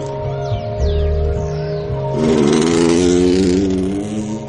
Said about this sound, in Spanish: Javi atraviesa el campo con la moto. Pasa ante Fede y Sara.